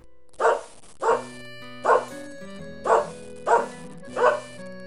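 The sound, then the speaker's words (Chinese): A dog barks six times in a steady, evenly spaced rhythm, each bark a short, loud, mid-pitched burst, with a low hum running underneath and no talking. “对，这是大家很熟悉，给我， 给我， 给我， 给我， 狗狗的声音。”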